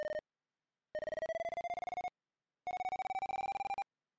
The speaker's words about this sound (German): So, meine Maus ist jetzt gerade relativ mittig auf dem Bildschirm. Ich schiebe jetzt mal die Maus ins rechte obere Bildschirmeck. Das heißt, der Ton wandert nach rechts und wird höher.